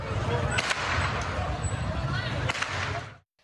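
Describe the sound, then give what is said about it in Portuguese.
Two sharp gunshots crack out about two seconds apart, a man firing toward Santos football supporters during a clash between fans, cutting through a steady murmur of crowd voices and outdoor commotion. “Em outro vídeo é possível ouvir os disparos.”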